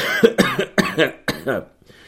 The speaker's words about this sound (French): putain, j'arrête pas de tousser. Je tousse quand même un petit peu.